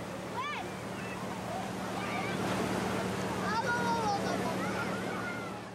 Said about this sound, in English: that idea can be seen here, in the wave pool at a holiday resort. A moving paddle behind the wall generates waves which travel away from the wall and are eventually dissipated on the sloping beach.